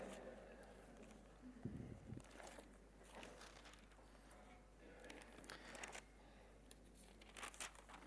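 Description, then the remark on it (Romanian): Intermittent crinkling and rustling of a small slip of paper noting a Bible verse (1 Corinthians 6:19) being handled, with soft irregular bursts and a brief louder thump partway through, over a faint steady background hum. “Mi-a sărit uh, hârtiuța unde aveam 1 uh, Corinteni, capitolul 6, versetul 19.”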